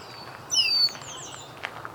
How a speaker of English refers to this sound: Lots of red-winged blackbirds.